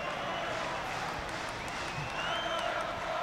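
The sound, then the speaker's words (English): Steady applause ripples through a large football stadium crowd, with Wolves manager Gary O'Neil applauding, as substituted player Sarabia walks to the bench. It is a dense, sustained wash of clapping and murmuring that holds at an even level for a few seconds. “The applause from Gary O'Neil as Sarabia walks to the bench.”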